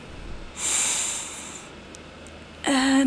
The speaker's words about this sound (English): But before all of this, let's take a big breath in